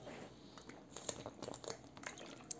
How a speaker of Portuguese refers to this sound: Tomei água. Tô tomando água que nem um. Pra caralho. Tô tomando água pra caceta.